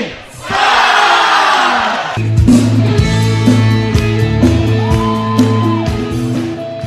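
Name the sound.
crowd applause and cheering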